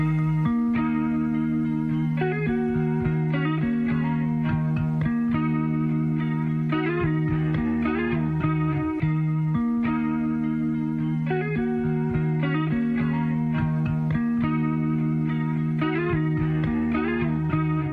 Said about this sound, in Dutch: En dat is het het kenmerkende geluid van de teruggekeerde gitarist